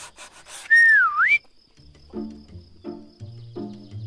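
A person whistles a short, loud melodic phrase that swoops down and back up, followed by softer, lower sustained musical notes.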